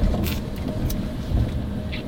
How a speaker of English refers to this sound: Oh, that car is leaving.